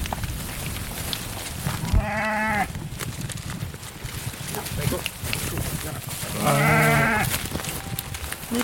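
Dairy ewes bleat twice, each call a wavering, drawn-out cry several seconds apart, against a steady background of barn noise and clatter.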